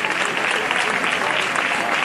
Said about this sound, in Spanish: La banda que la precedía, la de la agrupación musical Nuestra Señora de las Angustias, el público aplaude ahora porque se está produciendo, como decimos, la entrada de la cruz